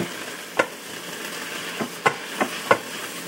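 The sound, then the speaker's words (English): A utensil stirs meat and beef broth in a pot, scraping the bits off the bottom. It makes five short, sharp scraping knocks at an uneven pace over a steady sizzling hiss. No one speaks. “Scrape all the bits off the bottom and get it all combined.”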